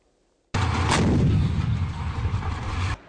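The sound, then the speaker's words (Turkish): Mortar fire in Idlib, where a Turkish Armed Forces convoy came under harassing fire and a mortar attack was made near the troops, erupts suddenly: one sharp boom cracking through a dense, roaring rumble that lingers for a couple of seconds before cutting off; no voices. “Anadolu Ajansı İdlib'de Türk Silahlı Kuvvetleri konvoyuna taciz ateşi açıldığını, birliklerin yakında havan saldırısı düzenlendiğini duyurdu.”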